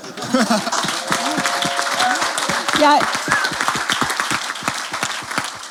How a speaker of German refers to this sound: Sehr gut. Ja. Applaus.